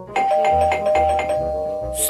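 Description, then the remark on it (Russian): An electronic doorbell rings insistently, its bright chime tones repeating in a quick, steady rhythm over a sustained high note, ending with a brief hiss. “Слышишь, как звонит-то настойчиво”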